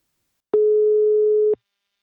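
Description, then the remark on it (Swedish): A single telephone ringing tone as an outgoing call to a partner company is placed: one steady, mid-pitched electronic beep lasting about a second, with a soft click at each end and silence around it. No voices. “Nu tar vi en kort paus och ringer upp min samarbetspartner Invacare.”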